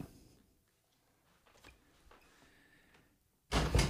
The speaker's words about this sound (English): He is walking confidently and purposefully out of the studio. That's the door. And you heard it. Was that loud?